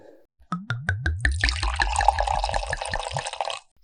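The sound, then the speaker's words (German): Wine from the Mosel region glugs out of a bottle into a glass, a quick run of rhythmic gurgles settling into a steady, splashy pour, clear for about three seconds with no talking. “Genau, und dann bringen wir noch ein Glas Wein zusammen.”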